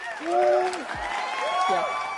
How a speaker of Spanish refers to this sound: Ponle, ponle aplauso falso a esta parte así. Aplauso.